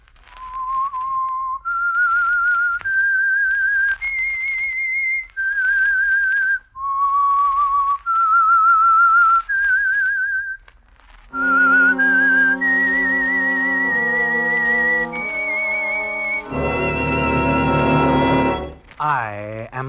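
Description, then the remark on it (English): The whistled theme of the Signal Oil program The Whistler: a solo melody of clear sustained notes stepping up and down, followed by an orchestra picking up the tune with full, swelling chords and ending on a rising flourish. “That whistle is your signal for the Signal Oil program, The Whistler.”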